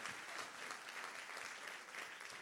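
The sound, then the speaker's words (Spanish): Loud, sustained applause from a large crowd, given for Jesus and God during a Spanish-language sermon, a dense wash of clapping that holds steady throughout with no pauses and no voices standing out. “Vamos, den un aplauso fuerte al Dios que te ama”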